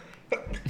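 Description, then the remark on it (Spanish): A single sharp sneeze bursts out, a quick explosive puff of breath followed by a brief low rustle, with no talking around it. “Salud.”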